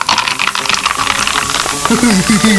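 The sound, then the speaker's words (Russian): Fizzy soda pours into glasses with a steady crackling hiss of bubbles, fairly loud, and a voice begins talking over the fizzing near the end. “Доставайте наш запас газировки, гайс. Сейчас разолью.”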